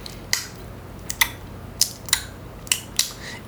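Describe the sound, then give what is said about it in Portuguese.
Six sharp, crisp tongue clicks, mouth noises spaced irregularly over a few seconds with quiet gaps between them and no talking. “isso, esses, esses barulhinhos que você faz, que, que as pessoas fazem com a boca, é barulhos bucais de uma forma geral, é isso.”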